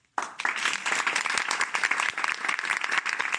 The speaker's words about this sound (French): Et eh oui, il n'y a pas de question, on a des, applaudissements enregistrés. Quelle archive On va pouvoir s'en servir de celle-là.